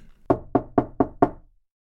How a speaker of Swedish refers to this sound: Ur bilen kliver två uniformerade generaler som med bestämda steg går mot ytterdörren. Den ena knackar hårt med sin handskbeklädda hand.